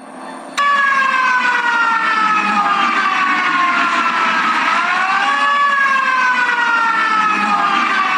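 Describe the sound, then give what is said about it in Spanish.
An alarm siren sounds after an explosion at the acid plant of the company Peñoles in the Comarca Lagunera. It wails loudly and steadily with a rich stack of harmonics, its pitch slowly drifting down and rising again, starting abruptly after a brief low rumble and continuing without any talking. “Estos son los momentos posteriores, ya con la alarma sonando, producto de una explosión en la planta de ácido de la empresa Peñoles en la comarca Lagunera.”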